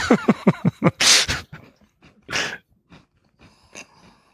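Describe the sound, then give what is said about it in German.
Crunching as a crisp cookie is bitten and chewed: a quick run of rhythmic crunches, then a louder crackling bite and a few softer chews, with no talking. “ich habe in einen Keks gebissen.”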